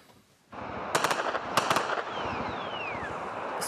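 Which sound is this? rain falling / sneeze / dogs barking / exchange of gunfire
exchange of gunfire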